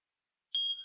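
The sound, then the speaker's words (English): A smoke detector in a house, while someone is cooking, lets out a single shrill electronic beep after a moment of silence, a steady high-pitched tone that starts abruptly and holds briefly. “Ah, smoke detector in the house.”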